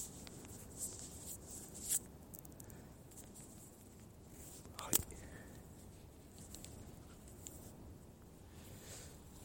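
Handling noise as a handheld recorder is shifted from the left hand to the right hand: soft rubbing and scraping with two sharper bumps a few seconds apart, over a quiet, steady background hiss.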